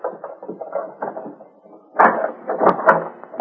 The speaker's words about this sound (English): Oh, would you please unlock the office door